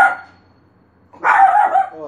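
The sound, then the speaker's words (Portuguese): Small dogs bark and yap at home in two bursts: a brief fading bark at the start, then after a short pause a louder, sustained flurry of high-pitched barking. “são meus cachorrinhos, viu, gente?”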